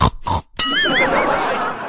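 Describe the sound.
A child's voice imitates a pig in class at the teacher's request, giving two short grunting bursts and then a longer, wobbling squeal-like oink whose pitch rises and falls, fairly loud throughout.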